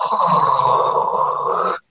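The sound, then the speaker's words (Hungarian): A person voices a low, rough, continuous growl imitating an annoyed seal, held steadily for nearly two seconds before cutting off abruptly. “Vagy énekelnek, úgymond, ami egy ilyen egész érdekes ilyen típusú dolog, vagy ha nem tetszik, ezt fejezik ki, akkor egy olyan hangot adnak ki, ami nagyjából így hangzik, hogy”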